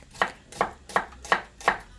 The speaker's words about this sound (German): Ich schneide die Zwiebeln sehr gerne in Streifen.